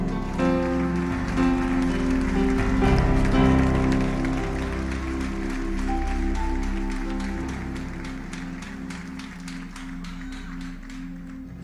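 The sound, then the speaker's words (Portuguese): A church audience applauds the Lord in a steady, dense patter of clapping that holds for several seconds, with sustained keyboard chords playing underneath and no voices. “A igreja pode aplaudir o Senhor.”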